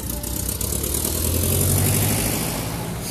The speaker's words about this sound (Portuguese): Abrir que um carro está passando.